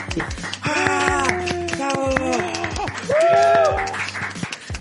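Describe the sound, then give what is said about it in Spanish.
A few hosts clap their hands in quick, uneven bursts while whooping and cheering with their voices, giving the applause themselves in place of an applause button for several seconds. “Sí, todavía no tenemos presupuesto, así que lo damos nosotros.”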